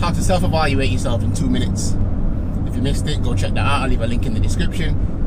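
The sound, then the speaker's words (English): Steady road traffic rumble runs underneath a man talking, a continuous low hum of passing cars that stays fairly loud throughout without clear breaks. “Apologies for the road noise in the background.”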